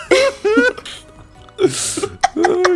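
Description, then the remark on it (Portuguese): A single sharp, breathy sneeze bursts out in the middle, fairly loud, surrounded by voiced exclamations and bits of laughter-like vocalizing. “Espirro de pintura, ah, né?”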